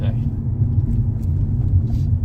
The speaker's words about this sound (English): Ugh, what the fucking no, it's, it's that. Saturday traffic.